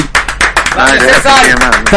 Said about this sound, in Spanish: Un aplauso.